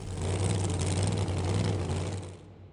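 A car engine runs steadily, a loud, constant rumble with a deep low drone, holding even for a few seconds before easing off at the end. No voices.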